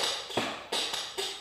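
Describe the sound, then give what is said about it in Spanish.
A backless chair in a studio creaks in three short bursts spaced about a third of a second apart, each a brief woody groan with no talking over it. “y si no se escucha nada de ruido aquí en el fondo ni nada, es porque estoy en mi estudio y lo único que van a escuchar es como mi silla.”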